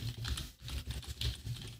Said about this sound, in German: Wenn ich das jetzt ausprobiere, muss ich laut tippen. Ich versuche es einfach mal.